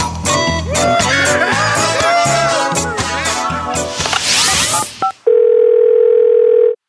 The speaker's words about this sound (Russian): И сейчас сейчас уходим на небольшой джингл и вернемся к вам снова.